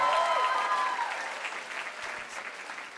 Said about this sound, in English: Let's give her another big clap.